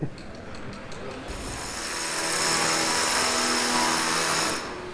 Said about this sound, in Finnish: Pora jyrisee yliopiston sisälläkin.